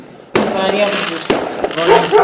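fireworks exploding

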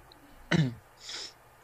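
throat clearing

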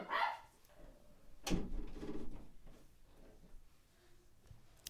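dog barking

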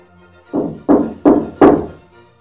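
knocking on a door

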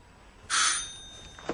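doorbell ringing

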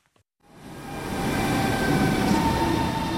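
train arriving

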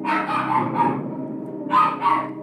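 dogs barking

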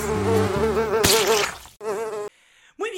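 buzzing fly sound effect

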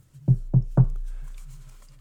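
knocking on a door

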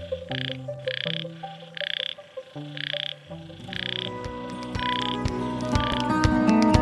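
frog croaking

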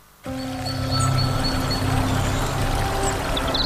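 flowing stream water

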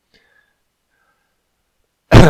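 cough

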